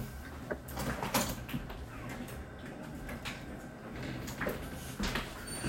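A door is opened and closed to answer someone knocking, with a few soft clunks and rattles over a low hum, no voices present.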